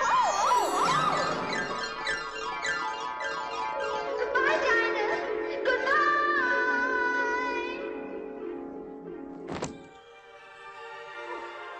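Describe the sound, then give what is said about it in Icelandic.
A roulette wheel spins with a rush of rapid, bright, tinkling tones that gradually slow and wobble in pitch, then a sharp thunk near the end followed by a quieter lingering ring. “En nú heyrum við rúllettu hljóð og það þýðir að nú hefum við tímaflag dagsens”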